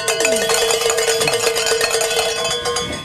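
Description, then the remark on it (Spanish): A hand bell rings rapidly and continuously for about three seconds in celebration of a goal reached at a Catholic radio station in Dallas, a bright metallic clanging with sustained ringing overtones, loud and steady with no voices over it. “Tocamos la campana antes de irse en celebración por esta meta que se ha logrado una vez más.”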